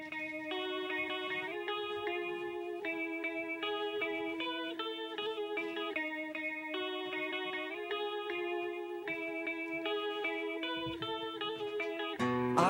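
A rock intro of heavily distorted electric guitar, sustained chords shifting in a repeating pattern at a steady, full volume, with no voices. A brief noisy swell closes it.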